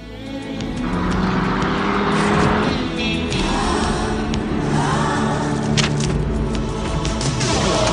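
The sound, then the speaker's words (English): A car engine roars loudly and steadily for several seconds, revving hard as the car accelerates over the cliffside of the Grand Canyon in a film's ending scene, with a dense rushing noise over the low motor drone and no voices. “It goes to slow motion with Harvey Keitel trying to save them, and our two heroines clasp hands and just gun it and go over the cliffside of the Grand Canyon, and it freeze frames on a beautiful car”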